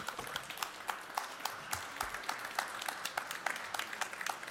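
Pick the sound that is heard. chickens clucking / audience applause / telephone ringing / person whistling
audience applause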